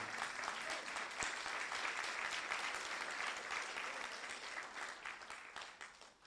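An audience breaks into steady applause, a dense wash of many hands clapping that holds strong for several seconds before gradually thinning and fading toward the end.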